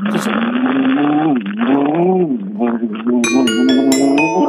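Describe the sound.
Over a phone call, a voice imitates a motorcycle engine revving through an unstable muffler with a hole in it: a loud, continuous buzzing drone that rises and falls in pitch, turning rougher and more sputtering toward the end.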